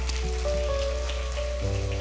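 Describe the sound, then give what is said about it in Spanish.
A church audience claps for the Lord in a morning service, a steady, dense, crackling wash of applause, with sustained keyboard chords holding underneath and shifting to a lower chord near the end. “Dale un fuerte aplauso al Señor en esta vida, esta mañana.”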